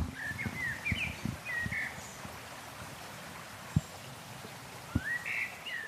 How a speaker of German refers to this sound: Danach konzentriere ich mich auf alles das, was ich höre, was ja hier im Wald wirklich viel ist. Die Grillen, die Vögel, der Bach unten, die Bäume, die da so rauschen. Also man hat hier wirklich eine sehr entspannende Kulisse.